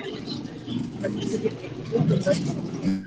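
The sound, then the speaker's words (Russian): A steady, dense rumble of street traffic, as from a traffic jam, comes through a call as background noise, with muffled, indistinct voices mixed in throughout. “Чувак, у тебя очень сильно это фонит, ты, наверное, в пробке там где-то тусуешься.”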